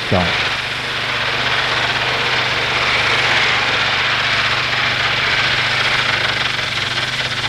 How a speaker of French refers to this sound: Ils sont dans une voiture, une vieille voiture 1900.